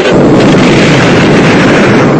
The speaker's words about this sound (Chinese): 一声惊雷冲天起。一九六四年十月十六号，我国第一颗原子弹爆炸成功，腾空而起的蘑菇云振奋了全中国。